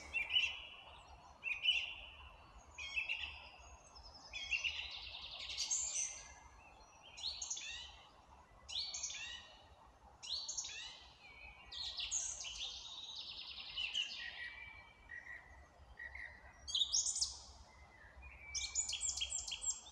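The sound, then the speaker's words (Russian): Birdsong fills a quiet forest, with many chirps and trills from several birds arriving in steady bursts over a soft, low background hush; no one speaks. “Вот просто послушайте этот звук, я сейчас в лесу нахожусь.”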